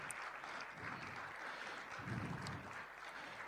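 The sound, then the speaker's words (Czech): A crowd claps steadily, a dense, continuous patter of many hands at moderate volume that fills the whole stretch without pause, with no talking over it, applauding a family who played, sang and spoke. “ještě jednou by si rodina Molinových zasloužila veliký potlesk za to, co připravili a co zahrali, zaspívali a řekli”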